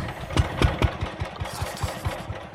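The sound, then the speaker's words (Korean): A power tiller engine chugs steadily, its low, rhythmic putt-putt knocking several times a second with a rattly mechanical edge, running alone without any talking, as the tiller arrives bringing two elderly people. “아, 그리고 잠시 후 경운기 소리와 함께”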